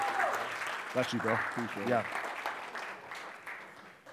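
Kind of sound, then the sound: crowd, audience applause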